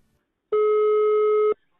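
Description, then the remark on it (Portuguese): A single steady telephone ringing tone of a call being placed sounds for about one second, loud, then cuts off into silence, with no voices. “A peça vai sendo construída ao telefone. Mourinho Arsénio telefona para Luísa Souza.”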